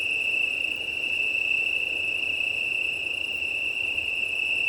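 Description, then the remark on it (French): A chorus of Italian tree crickets trills steadily and without pause in the evening, a clear, sustained chirring that holds the same pitch throughout, with a soft wash of thermal wind blowing through large pine trees beneath it. “donc à un chorus fabuleux, dont les auteurs sont les grillons italiens, le Cantus Penusens.”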